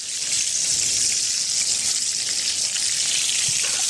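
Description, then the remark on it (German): Loud, steady sizzling of a schnitzel frying in hot neutral oil while being basted so that both sides touch the hot fat, a dense crackling hiss with tiny pops throughout, with no one talking. “durch dieses Beschöpfen, das jetzt von beiden Seiten mit dem heißen Fett in Berührung kommen, entstehen die Wellen, wie man das so schön sagt.”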